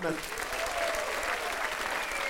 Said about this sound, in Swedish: En stor applåd för dem!